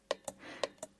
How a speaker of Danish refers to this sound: Det her er lyden af Ditte, der morser, altså sender en besked i et kodesprog, som består af prikker og streger.